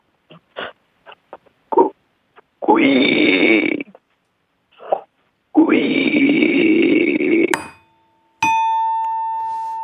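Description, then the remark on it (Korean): A voice imitates a hungry pig with short grunts and snorts, then two long, harsh squealing oinks, followed by a bright chime ringing out and fading. “배고픈 돼지 해보겠습니다.”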